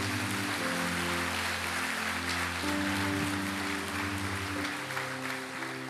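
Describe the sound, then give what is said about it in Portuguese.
Sustained, dense audience applause, a round of applause for Jesus at a church service, fills the whole stretch at a steady, loud level, with held musical chords playing underneath the clapping. “Uma salva de palmas para Jesus.”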